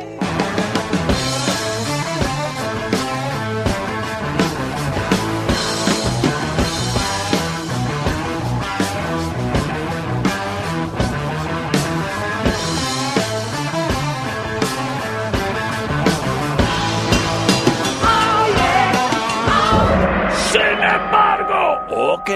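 A loud hard rock recording plays throughout, with pounding drums, dense distorted guitar riffs and high, strained vocals. The sound stays thick and steady before it thins out in the last couple of seconds.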